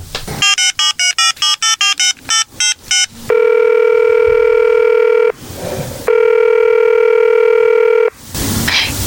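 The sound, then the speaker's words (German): A quick run of about ten telephone keypad tones beeps out a number, followed by two long steady ringback tones separated by a pause, with a brief rustle between rings. “Ja, hier ist es, kommt, dann lassen wir anrufen. Ja, dann ruft, tippt doch mal rein.”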